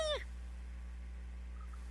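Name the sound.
cat meowing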